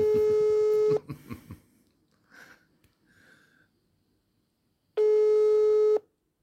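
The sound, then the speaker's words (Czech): A phone ringback tone sounds twice during a call to a band's guitarist, each a steady one-second electronic buzz separated by about four seconds of near silence, with a few faint rustles and breaths in between. “vyzvánějící tón bychom měli.”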